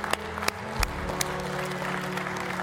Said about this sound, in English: Come on, would you give the Lord a round of applause if you would, please?